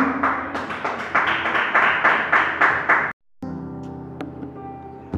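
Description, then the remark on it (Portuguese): A church audience claps steadily in praise of the Lord Jesus for about three seconds, dense overlapping hand claps with a rhythmic pulse, then it cuts off abruptly and a quieter, softer background with faint taps follows. “Que as palmas para o Senhor Jesus, amém?”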